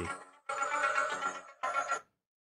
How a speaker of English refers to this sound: Is that your phone ring? That's my phone ringtone.